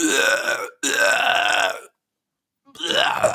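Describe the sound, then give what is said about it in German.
A voice mimics a person at a ceremony with shamanic chanting throwing up into a bag, with three loud, gurgling retching heaves: two in quick succession, a second of silence, then a third. “und neben dir ist dann einfach einer so dabei und der kotzt dann einfach so neben dir voll in so eine Tüte, so die ganze Zeit und wirkt da einfach so alles raus, so auf die richtige, heftigste Art und Weise, so, ne?”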